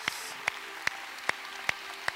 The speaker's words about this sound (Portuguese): Quem pode dar um grande aplauso ao Senhor Jesus nessa manhã? Bem forte. Bem forte.